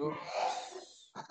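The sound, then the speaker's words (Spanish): A single forceful, breathy sneeze bursts out, followed by a brief pause and two short voiced sounds, like a quick murmur or laugh. “Salud.”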